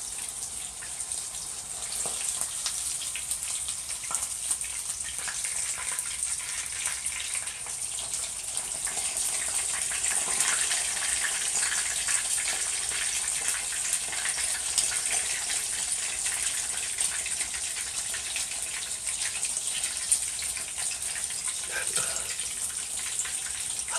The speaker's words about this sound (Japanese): 揚げ物の料理をしないのでどのくらい揚げたらいいのかわかんないあと ASMR 初めてだからこの揚げてる音と自分の声との音量バランスがどうなってるかわかんない